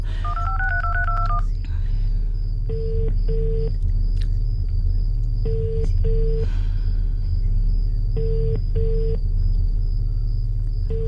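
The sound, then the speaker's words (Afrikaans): A burst of keypad dialing tones, then a cellphone call rings out unanswered, with three double-ring pulses at steady intervals over a low, constant engine rumble, placed from a car waiting at a gate that will not open. “Hoekom het jy 'n selfoon as jy die ding nooit antwoord nie”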